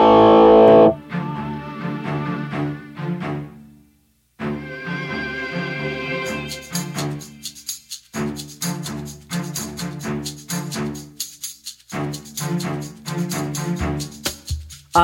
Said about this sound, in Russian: Сейчас музыка, а дальше вернемся. Прайм Радио. Ваш правильный выбор.